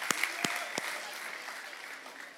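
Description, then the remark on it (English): A small church audience breaks into applause for two newborn babies, a few sharp claps standing out at first before settling into a steady, fairly soft patter of clapping throughout, with no voices. “So let's hear it for them, the Hanselmans”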